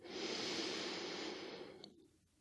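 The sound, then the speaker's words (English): A slow, deep breath drawn in during a guided breathing exercise, a steady airy rush lasting about two seconds before tapering off into quiet. “So, breathing in”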